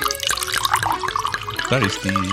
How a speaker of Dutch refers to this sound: Ik denk altijd, als ik dit hoor, er staat iemand te plassen in een urinoir. Maar dat is het helemaal niet. Het is, het nou, is, het is wijn dat wordt ingeschonken.